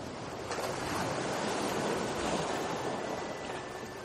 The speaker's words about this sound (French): Les vagues continuent leur spectacle pour vous, parfois plus intenses, parfois plus douces. Elles vont et viennent sans s'arrêter.